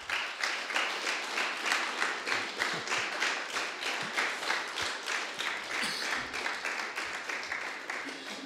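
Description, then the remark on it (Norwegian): An audience applauds a singer steadily for over eight seconds, the dense crackle of many hands swelling into a regular pulsing rhythm, roughly two beats per second, with no one speaking. “Eh, og vår takk tilbake til deg, det er en god applaus, folkens,”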